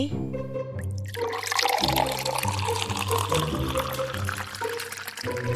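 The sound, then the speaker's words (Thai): Seawater pours steadily into a glass jar holding a small octopus, a continuous splashing gurgle lasting several seconds over soft background music with low sustained tones. “เด็กคนนั้นจับเขามาใส่ไว้ที่โหลแก้ว และเทน้ำทะเลลงไปดูว่ามันจะว่ายไหม”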